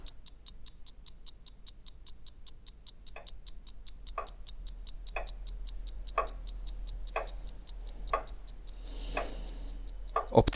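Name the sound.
mechanical clock ticking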